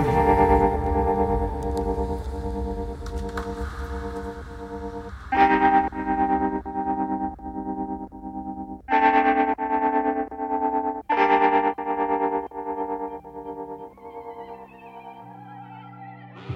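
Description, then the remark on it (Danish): A loud, effects-heavy music track with vocals plays continuously, with distorted, chorus-like sustained tones and pulsing rhythmic chords that shift in sections, ending on a softer, sparser passage. “Det er simpelthen så gennemført, det nummer her.”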